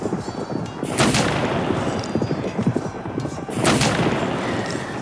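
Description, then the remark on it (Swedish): A horse's hooves clip-clop steadily as a rider turns the horse and rides out to the flank during a battle against an attack by the Danes, set against a dense, rumbling background of noise that swells in two louder bursts, like gunfire, with no talking. “Han Mikkel tänka innan han vände på hästen för att rida ut till flank”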